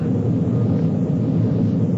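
A loud, steady jet engine roar rumbles continuously, like an airplane taking off. It's a deep, unbroken drone with no voices.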